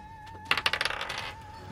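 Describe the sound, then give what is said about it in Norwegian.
A small die clatters across a hard tabletop in a quick burst of rapid, diminishing clicks before settling on a seven, over a faint steady background hum. “Ah, denne terningen vil jeg ikke bruke mer. Det ble syv.”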